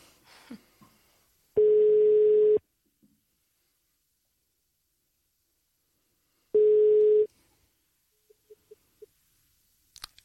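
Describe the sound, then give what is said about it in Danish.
A telephone ringing tone while calling a debate participant: two steady, mid-pitched buzzing tones about a second long each, separated by a long silent gap, followed by a few faint clicks. “Så nu prøver vi lige at, at ringe til ham.”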